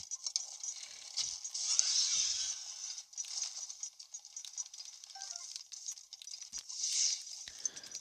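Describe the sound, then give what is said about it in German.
Video game fireballs rain down in a steady crackling, hissing patter, swelling into louder bursts now and then, with no voices over the continuous noise. “Man hört schon, es regnet gerade Feuerbälle.”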